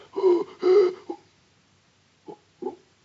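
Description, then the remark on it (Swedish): A woman's voice imitates heavy panting: two long, loud breathy gasps followed by a few shorter, quieter huffs after a pause, with no talking. “Andas ganska häftigt, ungefär så här. Vad hör du? Hon flämtar.”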